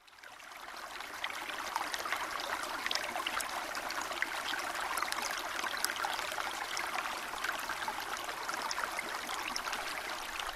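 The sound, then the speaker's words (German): River water flows steadily, a continuous rushing babble with small splashes and gurgles scattered throughout, and no voices or other sounds. “Wasser fließt im Fluss.”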